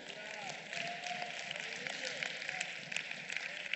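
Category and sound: crowd, audience clapping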